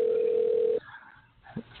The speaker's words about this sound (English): The phone is ringing.